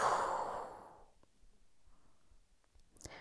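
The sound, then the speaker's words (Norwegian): A deep, breathy exhalation during a guided breathing exercise rushes out and fades away over about a second, followed by near-silence and a small soft click at the end. “Og pust ut.”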